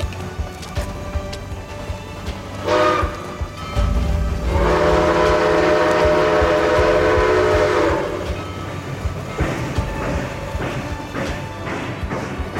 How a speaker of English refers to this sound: As the train pulled away, Agnes could feel, fading into the distance, all that she had ever cherished in this world.